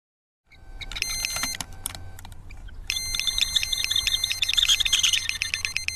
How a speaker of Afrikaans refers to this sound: In 'n alarm wat aan 'n visstokhouer vasgemaak is, skree om aan te kondig dat 'n karp een van Quentin Lock se boilies ingesuig het.